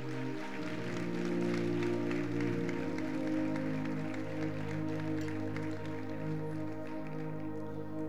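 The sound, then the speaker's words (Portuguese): An audience applauds the Lord in a dense, steady wash of clapping that lasts several seconds, with sustained low keyboard chords held underneath and no voices standing out. “Aplauda o Senhor. Se for para Deus, aplaude.”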